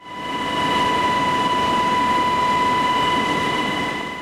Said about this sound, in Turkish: Devreye jandarma genel komutanlığı girdi. Sağlık ekipleriyle havalanan helikopter hastaları mahsur kaldıkları yerden alıp tekrar havalandı.